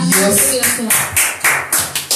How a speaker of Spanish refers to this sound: Wow. Un aplauso. palabra, un aplauso.